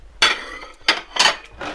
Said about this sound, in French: Et ma vaisselle, elle est, elle est faite en deux temps, trois mouvement.